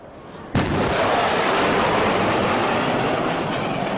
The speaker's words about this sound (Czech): Může se vám zdát, že někde něco bouchlo, ale klid, to jen supersonik překonal rychlost zvuku. Říká se tomu sonický třesk a může být slyšet až desítky kilometrů daleko. I když vám skoro urve uši, jinak nebezpečný není.